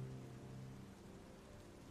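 Rain patters steadily on the roof of a camper van, a continuous dense hiss of drops with a low droning hum beneath, fairly quiet and unbroken throughout, with no voices.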